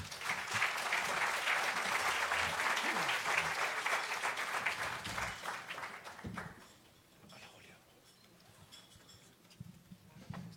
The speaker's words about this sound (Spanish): Un aplauso, por favor.